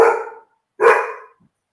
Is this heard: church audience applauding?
no